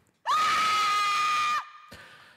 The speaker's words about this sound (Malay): dan beberapa saat selepas itu kedengaran anaknya terpekik kuat.